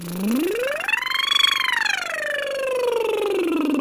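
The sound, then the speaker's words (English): A single voice glides smoothly from low to high pitch and back down in one continuous sweep, a steady vocal siren warm-up exercise sung alone with no other sounds. “And then you can do sirens, we call them, where you go up and down.”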